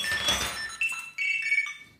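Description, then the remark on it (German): A black Bluetooth key finder, triggered from an app on a phone, rings out a bright, high electronic chime, a few short stepped tones in quick succession after an initial jangly burst, with no one talking. “und ich führ's dir jetzt wenigstens einmal vor, damit du den Sound hörst.”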